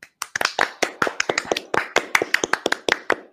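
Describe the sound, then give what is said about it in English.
A small group on an online call unmutes and claps together for a few seconds, the sharp hand claps overlapping irregularly, slightly uneven as if coming through several separate microphones. “If everyone wants to unmute, we can give Duane a round of applause real quick.”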